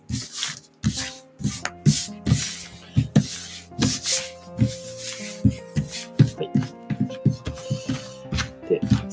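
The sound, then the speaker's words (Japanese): Tarot cards being shuffled, a steady run of quick papery swishes and soft taps repeating in irregular bursts, with a faint tonal hum underneath and no talking. “では、毎度のごとくタロットを切っていきます。こういうてね、カシャカシャしていきます。”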